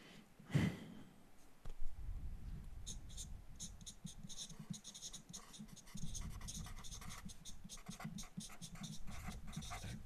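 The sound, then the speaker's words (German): Pens scratch busily across paper in quick, irregular strokes as quiz answers are written, fairly quiet, with a soft breathy sigh near the start and a thump shortly after. “Krickel die Stifte 5, 4, 3, 2, 1 und Stifte weg”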